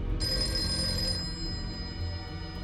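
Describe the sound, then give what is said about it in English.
A telephone bell rings in a single bright, shrill burst lasting about a second, then cuts off over a steady low rumble of background noise. “For weeks on end, Jean was terrified to pick up the phone.”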